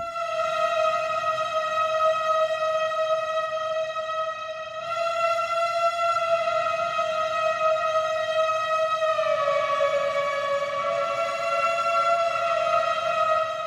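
A synthesizer imitating a singing saw holds a long, steady, reedy tone, then shifts to a slightly lower note about two-thirds through. It plays alone, clear and fairly loud, with no talking. Pitch is set with a ring, and volume or filter with a small wooden block.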